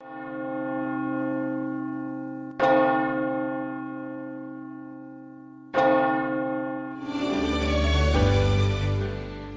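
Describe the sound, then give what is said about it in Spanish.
Church bells ring the Angelus: loud, resonant strokes about three seconds apart, each humming on, then several bells break into a fuller, clashing peal. No voices. “y llegamos aquí al final en el que en breve escucharemos y rezaremos eh, el ángelus”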